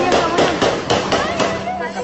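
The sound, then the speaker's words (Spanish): A rapid burst of gunshots, roughly eight sharp cracks fired in quick, even succession over about two seconds, loud against a muffled background. “¡Ay, no disparo! ¡Qué miedo!”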